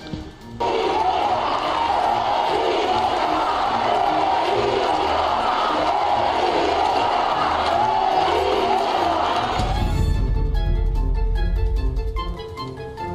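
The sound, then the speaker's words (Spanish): A large crowd shouts and cheers loudly and steadily for about nine seconds, chanting "presidenta", then the roar cuts off abruptly into a different, more tonal sound with a deep low rumble. “muchos ya le, gritaban, presidenta”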